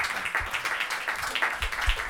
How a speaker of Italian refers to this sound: Un applauso signore.